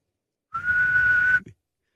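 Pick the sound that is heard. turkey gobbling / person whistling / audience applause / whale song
person whistling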